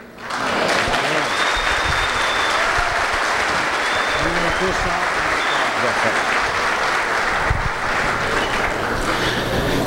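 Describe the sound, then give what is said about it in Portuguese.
Sustained applause from a pastor's audience in Brazil, a dense crackle of many hands clapping steadily for the full length, loud and continuous with some cheering voices mixed in. “Que essas palmas, eu quero usar as palavras do meu querido irmão Pascoal Piragini, que essas palmas se traduzam também em ação, não é?”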